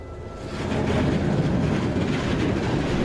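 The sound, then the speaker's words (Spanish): A train rumbles along railway tracks, swelling quickly to a loud, steady roar of rolling wheels with a faint rhythmic rattle, with no voices. “inversiones en un nuevo medio de transporte clave para el desarrollo económico del país, el ferrocarril.”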